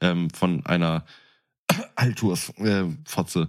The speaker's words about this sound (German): Gesundheit. Ja, äh, ich musste gerade richtig niesen.